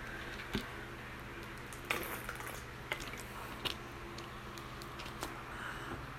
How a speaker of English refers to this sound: First, let me drink water.